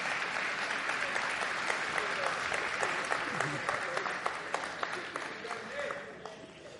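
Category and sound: crowd, audience applause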